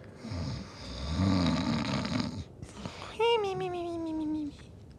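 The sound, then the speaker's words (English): A voice imitates a drunk man snoring: a long, rumbling, ragged snore, then a brief pause and a rising, nasal whistling wheeze that slowly slides down in pitch, fairly loud. “Jim Jar is passed out at one of the tables with a bunch of cards around him with a bottle of booze”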